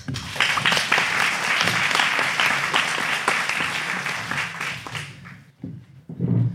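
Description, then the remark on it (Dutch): An audience applauds loudly with dense, steady clapping for about five seconds, then the applause thins out and fades, leaving a few scattered sounds at the end. “Applaus.”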